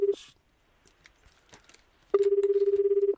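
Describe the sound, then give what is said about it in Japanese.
A telephone call placed by the hosts to a listed number rings out unanswered: a brief tone cut at the start, quiet clicks, then a loud, steady, fluttering ring tone lasting about a second. “寝ちゃってるちょっと早めに寝ちゃってるとか、ね、おかけになった電話をやっぱすれ違いますねそう 簡単に繋がれないね”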